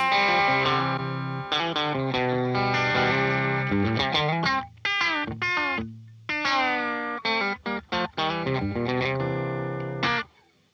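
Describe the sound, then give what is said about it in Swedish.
A distorted electric guitar with its pickups wired in series plays a thick, full-bodied riff of sustained chords and short choppy stabs, loud, with brief pauses between phrases and no voices. “Och sen så är det halsmick och sen är de i serie då.”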